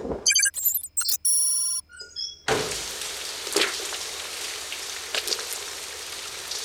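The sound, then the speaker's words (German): A brief electronic chime-like jingle gives way to steady rain, a dense hiss of falling drops with occasional louder splashes, continuing to the end. “Er ist in den Regen raus.”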